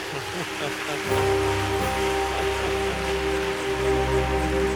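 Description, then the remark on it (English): An audience claps steadily, a dense, continuous patter of many hands that holds at an even loudness, with sustained musical tones humming underneath. “It's a good place to clap.”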